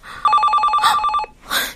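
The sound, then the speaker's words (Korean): A telephone bell rings in one loud, rapid trill lasting about a second, its bright pulsing tone rattling steadily before cutting off, followed by a short burst of hiss. “아, 작가님, 전화 좀 받으세요.”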